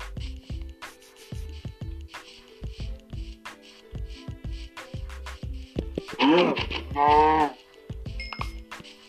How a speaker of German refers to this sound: Noch ein Schaf.